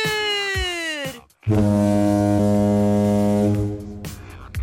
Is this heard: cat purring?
no